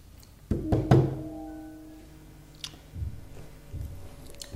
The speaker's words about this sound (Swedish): Men eh, jag går över och knackar på.